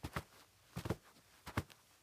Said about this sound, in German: Noch einige Schritte, dann erreicht der langjährige Diener des Hausherrn die doppelflügelige Tür.